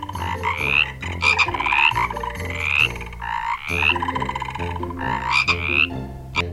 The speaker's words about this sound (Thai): กบตัวผู้นั้นมีถุงเสียง ถุงที่เต็มไปด้วยอากาศเหมือนลูกโป่งและเจ้าถุงเสียงนี่แหละค่ะทำให้กบร้องได้เสียงดังมากๆ และกบแต่ละสายพันธุ์ก็มีเสียงร้องที่แตกต่างกันออกไป เสียงของกบบางชนิดนั้นดังมาก มากขนาดที่ว่าอยู่ไกลเป็นกิโลเมตรก็ยังได้ยินเลยค่ะ